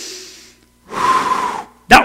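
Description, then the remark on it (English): A slow, deliberate breath: a soft airy inhale, a long breathy exhale lasting nearly a second, then a short sharp puff of air at the end. “That was a breath given to you by the breath giver.”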